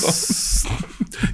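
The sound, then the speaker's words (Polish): A voice imitates a gas lighter with a steady, breathy hiss lasting over half a second, then a quieter pause and a short second burst of hissing near the end. “weź podkręć tę zapalniczkę.”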